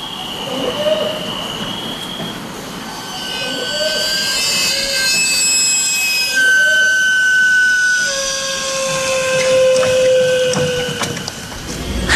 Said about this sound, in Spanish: A la noche de repente se oye el silbido del camote dulce del camotero. Nos asusta y despierta al bebé y al perro.